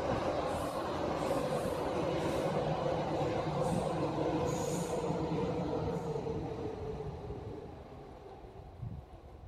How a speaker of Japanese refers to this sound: えー、電車ですね。南武線です。嘘です。そんなとこにいないです。